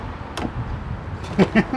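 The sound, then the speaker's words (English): A Tesla car door being opened: a sharp latch click, followed a moment later by two soft, muffled thumps over a low background rumble. “I've never opened a Tesla door before.”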